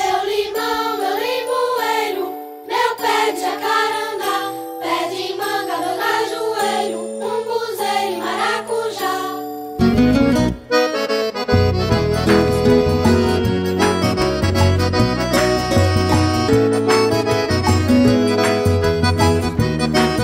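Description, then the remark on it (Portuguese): A gentle, tinkling melodic intro plays on its own for about ten seconds, then fuller accompaniment with a steady bass line and rhythm kicks in, bright and upbeat like a children's song. “você que vai ouvir músicas muito legais que servem para as crianças, mas também os adultos adoram.”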